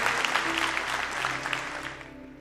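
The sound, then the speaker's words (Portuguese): A church audience applauding the Lord: dense, steady clapping from many hands, holding for a couple of seconds before tapering off slightly at the end. “Eu espero que você também pode aplaudir o Senhor.”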